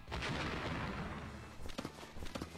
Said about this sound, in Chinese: 下一秒，能量爆炸，两道人影砸飞了出去。